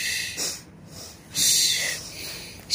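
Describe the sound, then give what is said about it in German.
Heavy, breathy inhalations and exhalations made into a microphone, a voice imitating a biology teacher's loud breathing in several hissing, airy surges with brief pauses between them. “Auf jeden Fall hat er die ganze Zeit ins Mikrofon eingeatmet.”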